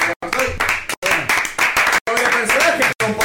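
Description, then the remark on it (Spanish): Many hands of a comedy show audience clap together in a dense, steady burst of applause, loud and continuous, with voices mixed in underneath and a few abrupt brief silent breaks. “así que como se dice la comedia, chicos, hermoso, como aplaudo de uno, cuando aplaudo de de todos acá”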